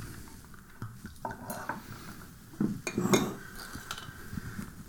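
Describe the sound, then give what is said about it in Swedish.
Ginger ale is poured into a glass, a gurgling splash with fizzy hiss, mixed with light clinks of glassware and a few louder bursts around the middle, with no voices present. “Och då tar jag lite ginger ale här också.”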